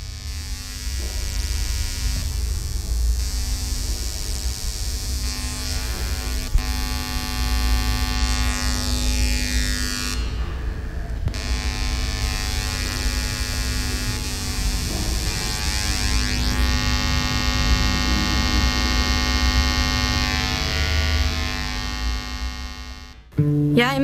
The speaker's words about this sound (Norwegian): Inni kuben er det utallige nettbur, hver og en fylt med en lyspære. Lysene i verket varierer lysstyrke. Den strømførende lyden til lysene tas opp i nåtid og blir forsterket gjennom fire høyttalere. Lyden fyller hele rommet.